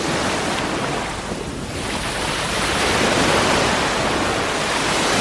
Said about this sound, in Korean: 자, 바로 1번 부산 해운대 바다 소리였습니다.